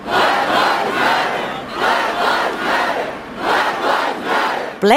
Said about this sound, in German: Black Lives Matter schrien zig Millionen Menschen auf den Straßen, in den kleinen und in den großen Städten, muss man sagen, hier in den USA, um gegen Polizeigewalt zu demonstrieren. Polizeigewalt gegen Schwarze.